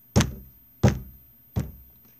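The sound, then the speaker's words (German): Three heavy, booming knocks on a door, evenly spaced about two-thirds of a second apart, each with a short resonant decay. The last knock is slightly softer, and nobody speaks. “Ein lauteres Klopfen.”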